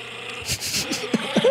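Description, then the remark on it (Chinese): A dog named Qiuqiu growls low and rough while playing happily, a few short grumbling bursts that end in a couple of rising, whiny notes over steady background hiss. “这完全听不出来是狗叫， 它就是它在玩耍的时候就会边玩边发出低吼， 所以它现在是开心的。”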